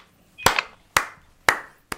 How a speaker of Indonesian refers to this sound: tepuk tangan dulu lah